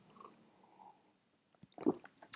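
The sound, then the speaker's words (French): A short stretch of near silence, then a quiet sip of herbal tea from a cup followed by small wet mouth and swallowing noises. No one speaks. “Attendez, je vais d'ailleurs prendre une petite gorgée.”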